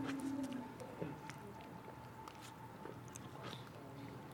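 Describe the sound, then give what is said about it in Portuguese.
Someone takes a quiet sip of water, with soft wet mouth noises and a swallow against a faint steady hum, no one speaking. “Deixa eu beber essa água aqui.”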